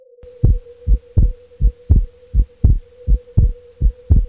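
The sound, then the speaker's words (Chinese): A pounding heartbeat thumps in a steady rhythm, about a dozen deep, booming beats over roughly four seconds, riding on a low continuous hum with no voices. “心脏跳动的声音震得耳膜发胀。”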